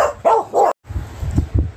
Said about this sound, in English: Um, the dogs were barking